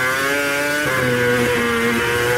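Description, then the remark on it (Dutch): The V8 engine of a 2013 Mercedes F1 W04 Formula 1 car, a non-hybrid, revs loud, its buzzing, harmonic drone holding steady, then dropping slightly in pitch and wavering as the revs shift. No voices. “V8-motor, ja, even het geluid horen voordat we de prijs weten dan.”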